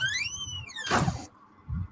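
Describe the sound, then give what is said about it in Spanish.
A door creaks open with a long, rising-and-falling squeaky hinge, then shuts with a sharp, loud slam and a low thud, with no voices. “y se ha ido por la puerta de atrás.”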